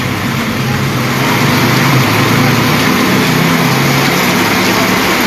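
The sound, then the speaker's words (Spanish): A heavy downpour roars steadily and loudly over a flooded street, a dense unbroken wash of rain noise filling the whole scene, with a low rumble underneath that could be traffic or running water. “Se escucha el aguacero, la ¿verdad?”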